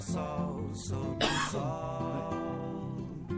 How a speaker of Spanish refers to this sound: Perdón por la tos, que estoy, en serio estoy muy cascado de la voz.